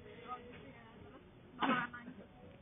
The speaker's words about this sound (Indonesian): batuk lagi